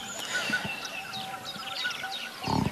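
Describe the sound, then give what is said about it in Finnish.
A common chiffchaff sings its repeated, high two-note song in the morning against a busy chorus of other birds, with a burst of low rumbling noise near the end. “No niin, siellä taustalla kuuluu tiltaltti. Tämä chilchalt, chilchalt. Ääni on tiltaltin ja se on yksi niistä linnoista, jotka on saanut nimensä äänen perusteella.”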